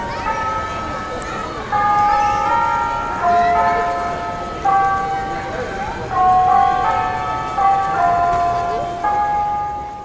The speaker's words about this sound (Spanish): quienes nuevamente contactaron a una empresa relojera de Zacatlán de las Manzanas Puebla, y por quienes tenemos la oportunidad de escuchar ahora, en las horas exactas, algunas campanadas que se acompañan de nuestro Dios nunca muere.